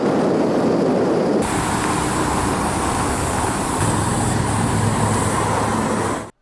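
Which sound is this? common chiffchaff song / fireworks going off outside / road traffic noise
road traffic noise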